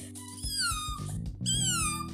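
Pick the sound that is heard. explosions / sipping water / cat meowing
cat meowing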